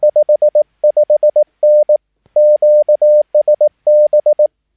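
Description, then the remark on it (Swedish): Clear Morse code signal sending a signal report of 5, 5, 9 with QSB (fading), a steady single-pitched tone in quick dots and longer dashes, grouped with brief pauses between characters, loud, with no voices. “5, 5, 9 och eh, QSB så förstår man då att det, det, är lite fading där.”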